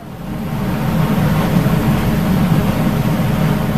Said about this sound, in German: Das Schiff kreist also umher, sucht nach Walen, die sich im Wasser bewegen. Und wenn sie Glück haben, stoppen sie und schauen ihnen zu. Und dann machen die Touristen Fotos. So klingt Whale Watching. Und so klingt es unter Wasser.